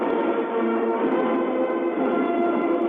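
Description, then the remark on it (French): The Redoutable, the first French nuclear submarine, sliding down its launch cradle at its launch, in an archive recording: a loud, continuous grinding rumble with a dense rattling texture, steady and unbroken for about three seconds, with no voices and a muffled, old-recording quality. “Le sous-marin glisse sur son berceau, Il a touché l'eau.”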